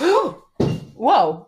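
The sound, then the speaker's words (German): A single dull, heavy thud as a pet cat lands hard after a failed jump sounds between startled exclamations and a gasp from a voice, the impact brief and quickly fading. “Sorry, das war meine Katze mal wieder.”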